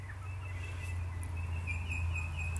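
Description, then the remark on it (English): Faint, thin bird calls warble high above a steady low hum, with a few brief chirps toward the end; no one speaks. “You know, bird experts say that birds sing to establish their territory.”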